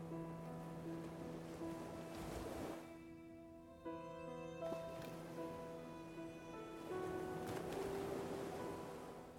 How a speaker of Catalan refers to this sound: Observa aquest continu de les onades i de la teva respiració.